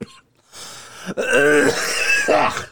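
Harsh coughing of a man after drinking a spicy Bloody Mary: a brief rasp, then a longer strained, wheezy coughing fit and a final hoarse cough, with no talking.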